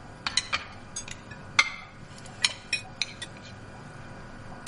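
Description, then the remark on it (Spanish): Several light clinks and knocks of plates come at irregular intervals as the plates are gathered and carried to the kitchen, fairly quiet against a faint hum with no talking. “Lleva los platos a la cocina.”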